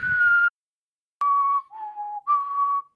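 A person whistles into a microphone in the middle of speaking, clear, steady tones: one short note, a brief silence, then a sequence of three sustained notes stepping down and back up, fairly loud.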